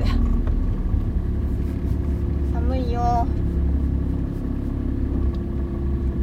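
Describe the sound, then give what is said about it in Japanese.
A steady, low engine rumble fills the cabin of a car from start to finish on a sunny, very cold Tuesday, November 30, and a voice briefly speaks partway through over the constant drone. “今日は本当に寒い。ね車の中がねとても寒いです”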